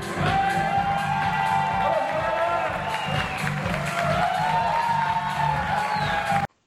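A live stand-up comedy audience at the Júlio Comércio Stand-Up show bursts into sustained applause and cheering to welcome the opening comedian, with loud clapping, whoops and shouts for several seconds before cutting off abruptly.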